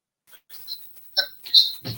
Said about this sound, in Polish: tu słyszę telefon, ktoś dzwoni.